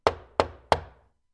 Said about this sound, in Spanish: Un minuto más tarde, unos golpes en su puerta principal hizo que se sobresaltara.